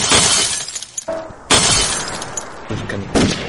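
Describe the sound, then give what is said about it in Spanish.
A jar full of juice, thrown with full force by a pig toward a crowd, smashes with a loud, bright burst of shattering glass, then a second crash follows, each with a scatter of tinkling shards before a short pause. “El puerco lanzó el bote con todas sus fuerzas hacia la muchedumbre y silbó”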